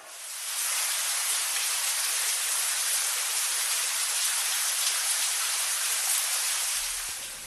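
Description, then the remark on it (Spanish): Steady rain falls with a dense, even hiss that holds constant for several seconds, fading in at the start and easing slightly at the end, with no voices. “y como comenzó a llover nuevamente, los barcos volvieron a moverse y pudieron navegar y se prepararon para salir.”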